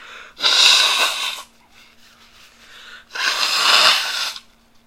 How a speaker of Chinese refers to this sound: 那如果听这个流日呢，听到一半呢，如果听到我在擤鼻涕的声音，是非常正常不过的事情哦。啊，等一下哦，我先擤鼻涕先哦。